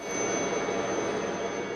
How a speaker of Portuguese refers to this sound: Todos os dias, o salva-vidas da Erz e o helicóptero, que chamam carinhosamente de Suzy, tem trabalho. Hora de agir, colocar o Suzy para funcionar.